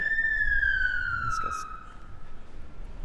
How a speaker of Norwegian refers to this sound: Det var så. veldig mye sirener her under recordinga. Ja. Det gir jo veldig sånn eh, storbyfølelse, da.